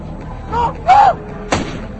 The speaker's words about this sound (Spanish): Finalmente, es alcanzado por un disparo mortal a quemarropa.